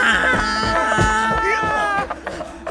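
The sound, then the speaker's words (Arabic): A human voice imitates a donkey's loud bray in a dark barn, startled after a stranger tripped over it and fell: a strained, drawn-out call lasting about two seconds, forceful, then breaking off into a brief quieter pause. “إلى أن شعرت بشيء يتعقل بي ويقع أرضا وإذا الشيء يصيح بصوت مرتفع مما أجفلني وجعلني أنهق بصوت مرتفع”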